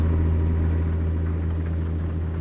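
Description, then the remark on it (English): A video game truck engine drones steadily with a deep, low rumble and a constant pitch as the truck is driven up to speed, loud and continuous with no talking and no clear gear change. “It's so nice though, because I can get this truck up to speed and flick through the gears like nobody's business.”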